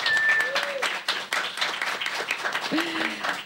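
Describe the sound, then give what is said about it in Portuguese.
A live audience, prompted by the host to make noise, cheers and applauds steadily, a dense wash of clapping with whoops and shouted voices rising above it throughout, loud and sustained. “Cadê a plateia? Uhul! Fazendo barulho.”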